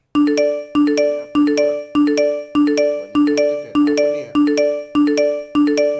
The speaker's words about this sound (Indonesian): apa nih notif banyak banget nih ya